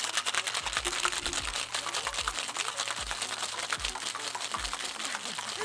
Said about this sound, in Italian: andiamo a shakerare tutto vi faccio sentire il rumore del ghiaccio